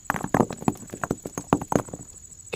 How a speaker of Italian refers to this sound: Mentre ti trascini nell'oscurità della caverna, lontana dal tuo stesso fuoco, per paura che ti faccia scoprire, colpisci un sasso che inizia a rotolare in avanti